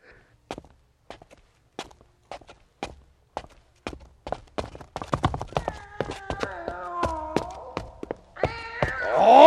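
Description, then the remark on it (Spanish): Steady footsteps thud down a staircase into a cellar, joined midway by the meows of a cat following behind, growing more insistent and ending in a loud yowl. “El gato me siguió mientras bajaba la escalera.”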